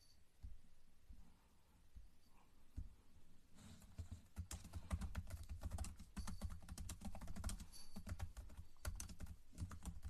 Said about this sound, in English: Sorry, I'm typing up my YouTube live real quick, y'all.